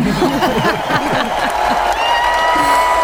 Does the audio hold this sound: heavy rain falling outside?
no